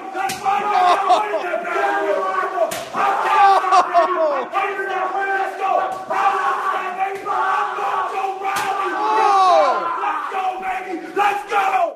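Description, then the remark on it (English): A loud, roaring crowd yells and chants steadily while a handful of sharp, smacking backhand chops to the chest crack through at irregular intervals, each one a quick flat slap, in a wrestling bout between Gronk and Mojo Rawley. “He's hitting him with the backhand chops in the beginning”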